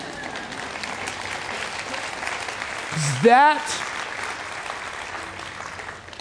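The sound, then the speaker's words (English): Steady applause fills the whole stretch, a dense crackle of many hands clapping at an even level, with a brief voice rising over it midway. “Insert applause here, okay?”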